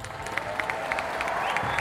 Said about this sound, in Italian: Accolto da un'ovazione, il leader alza la mano salutando la folla.